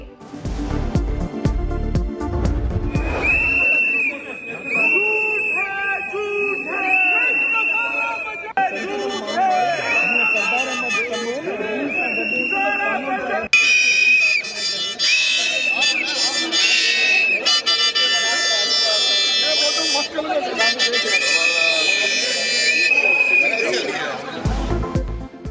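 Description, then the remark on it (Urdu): A packed Sindh Assembly hall erupts in uproar during the presentation of Sindh's 1,452 billion rupee budget, with shrill whistles blowing again and again over a dense roar of shouting and chatter from many people, loud and continuous throughout. “قومی اسمبلی میں ہلڑ بازی ہوئی تو سندھ اسمبلی کے ارکان بھی پیچھے نہیں رہے سیٹیوں سے گونجتے ایوان میں سندھ کا چودہ سو باون ارب روپے کا بجٹ پیش”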